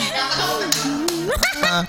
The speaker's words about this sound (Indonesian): Eh tepuk tangannya biasa aja